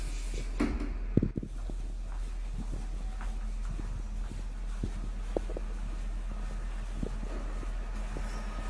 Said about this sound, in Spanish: Ahí está la puerta loca otra vez. Es el uno, ¿no? Donde... Y ya que nos acercamos, se deja mover, ¿viste? Mira, para que vean, no hay nadie, nadie, nadie, nadie. Pues, y se sigue otra vez.